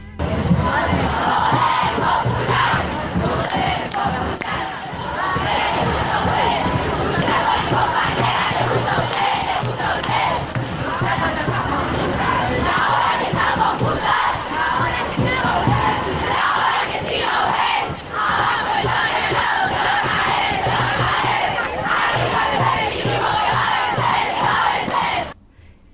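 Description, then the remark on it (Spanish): A large protest crowd chants a street song of struggle together in unison, loud and sustained for the whole stretch, with rhythmic rises and shouting voices blending into one dense roar. “ya estamos promediando este ranking de canciones de lucha y de alegría en las calles.”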